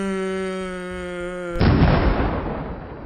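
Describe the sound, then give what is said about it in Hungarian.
A steady, droning tone holds for a moment, then a sudden loud explosion bursts in as explosives hidden in a shoe go off, its rough, crackling roar lingering and slowly fading. No one speaks. “Slobó felrobban.”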